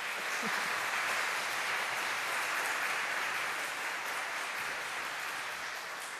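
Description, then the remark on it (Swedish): A crowd applauds steadily, a dense wash of many hands clapping at once that holds at an even, fairly loud level throughout without pause or voices. “stort tack, en stor applåd.”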